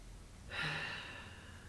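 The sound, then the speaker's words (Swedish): A single deep, airy breath drawn in a guided relaxation exercise with eyes closed, swelling quickly and then easing off slowly, with no talking around it. “Och så börjar vi med att bara ta ett djupt andetag.”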